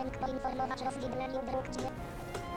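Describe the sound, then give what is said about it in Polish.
A steady, layered electronic tone from a video game signalling a fork in the corridors, humming continuously at moderate volume with a light, irregular patter of clicks and soft taps over it for a couple of seconds. “Tutaj właśnie jest rozwidlenie dróg, czyli te korytarze albo po lewej, po prawej to wschód-zachód, albo północ-południe to e, wyższy lub niższy ton.”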